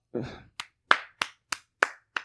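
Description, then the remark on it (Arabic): A brief vocal exclamation, then six sharp hand claps given as a show of respect, in a quick, even rhythm, fairly loud, each clap crisp and short. “بس ما ما في شيء كف احترام”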